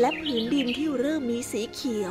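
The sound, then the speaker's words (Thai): A voice narrates steadily while light bird chirps and tweets flit in the background over a field of blooming flowers in sunshine, with a couple of brighter, high calls near the end. “พื้นดินนั้นได้เต็มไปด้วยดอกไม้ที่กำลังเบ่งบาน มีเสียงนกร้องเจ้ยแจ้วและแสงอาทิตย์ที่ส่องตลอดทั้งวัน”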